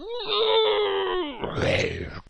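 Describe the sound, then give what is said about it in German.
A person imitates the deep, rumbling howl of a giant wolf during a tabletop role-playing game, one long, loud, sustained note that sinks at the end, then breaks into a rough, breathy growl before fading out. “Dann hört ihr ein lautes Heulen.”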